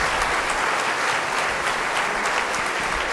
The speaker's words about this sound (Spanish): Muy bien, chicos, pues un aplauso también a quienes este día.